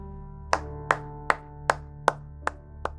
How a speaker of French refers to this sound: Du coup, alors que le cours euh, touche à sa fin, des applaudissements isolés se font entendre dans la salle.